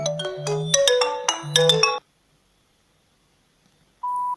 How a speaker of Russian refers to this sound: Кто-то звонит. Ну, давай возьмем трубку.